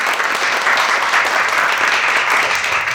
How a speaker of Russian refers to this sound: Поаплодируйте, пожалуйста, кто сегодня заходил хотя бы в одну социальную сеть. Но я вижу, что не все аплодируют. Да, вот не все, не все. Пора отложить свои смартфоны и снова поаплодировать. Я должна услышать вас всех.